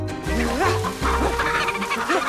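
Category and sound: animal, chicken clucking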